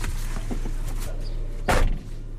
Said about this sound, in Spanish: Las veces que ha abierto y cerrado la puerta del coche Joaquín, yo no las he contado